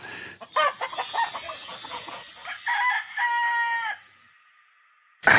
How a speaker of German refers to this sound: Äh, Kikeriki, ja.